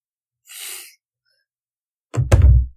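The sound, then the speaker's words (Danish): A soft breathy hiss, then after a pause a heavy, muffled thudding burst with a couple of quick knocks, deep and boomy, as of someone knocking, heard in the distance from inside an egg. “hvor der er nogen, der banker på en.”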